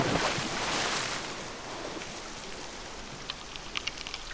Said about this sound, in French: Mais l'un de ses sabots glisse et plouf